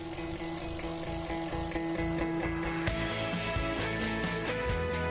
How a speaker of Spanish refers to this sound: ¿Será el plato o el piñón? ¿Lo que suena? De momento el plato.